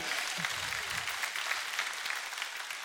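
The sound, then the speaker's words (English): An audience claps steadily, many hands blending into a dense, even patter that holds at a fairly constant level for the whole stretch without fading. “One clap.”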